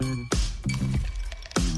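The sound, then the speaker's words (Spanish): The first ice cubes for a Brancamenta drink drop into a glass one after another, making several sharp clinks and knocks over a soft, steady musical tone in the background. “Esa hora en la que tirás los primeros hielos.”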